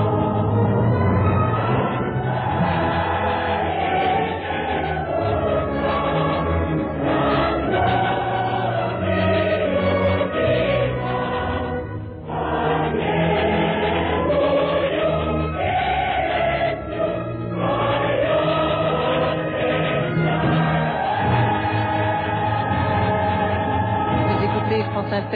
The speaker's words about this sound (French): cette cantate qu'on vient d'entendre, c'est une dévotion quasi religieuse, âme, chair et sang du